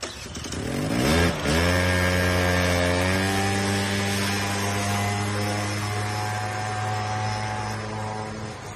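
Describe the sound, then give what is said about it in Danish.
A small moped engine idles, its steady buzzing drone briefly revving and dipping near the start before settling into an even, continuous putter. No one speaks. “Og det blev på knallert.”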